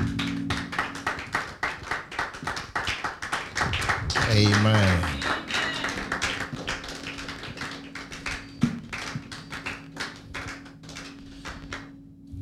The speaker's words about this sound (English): So without much ado, with a clap offering, let's welcome